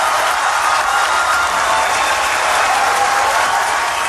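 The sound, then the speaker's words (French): Sustained, dense applause from a large crowd at the closing of the COP21 climate conference in 2015, when the Paris climate agreement was accepted; a steady loud wash of clapping that holds without pause for the whole stretch, with no voices standing out. “Alors des applaudissements, il y en a 8 minutes.”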